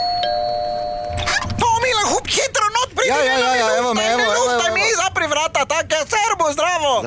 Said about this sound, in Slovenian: Pa najboljše, da kar pozvonim.